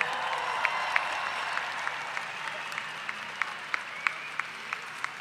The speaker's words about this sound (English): So these powerful women, give them another cheer. They deserve it.